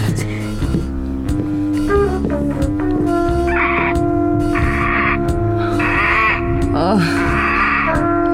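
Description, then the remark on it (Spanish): A crow caws hoarsely several times in rough, spaced bursts over a steady, droning musical background, the calls moderately loud. “Hasta el cuervo enronquece al graznar anunciando la fatídica entrada de Duncan bajo mis almenas”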